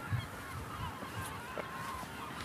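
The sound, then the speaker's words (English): A flock of geese honks overhead, several calls overlapping in a busy, continuous chorus over a steady rush of outdoor wind noise. “If only you can see how many are flying above me right now.”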